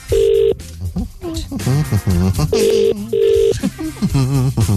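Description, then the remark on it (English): A phone call's ringing tone as an outgoing call is dialled: short, steady electronic buzzes, one at the start and then a quick double ring, loud and clear, with a voice talking in the gaps between them. “I'll punch that in and I'll do that and I'll click on that. That's ringing.”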